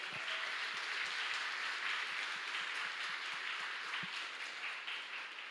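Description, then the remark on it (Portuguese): An audience breaks into sustained applause for Jesus, a steady, dense wash of many hands clapping at once, holding an even loudness for several seconds with no voices standing out. “Vamos aplaudir a Jesus?”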